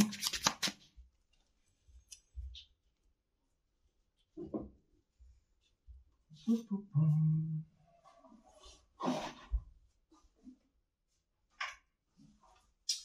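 Playing cards being shuffled during a card game, with intermittent crisp riffles and soft papery taps between quiet pauses, and a brief low murmur partway through.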